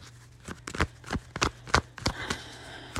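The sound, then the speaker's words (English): A deck of tarot cards being shuffled, with a quick series of crisp, papery riffles and snaps in an uneven rhythm, then a softer rustling shuffle toward the end. “Let me do a quick shuffle.”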